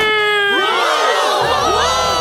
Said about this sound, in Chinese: 裁判高高的举起了鳄鱼的手，宣布了胜利者。周围的动物们响起了热烈的欢呼声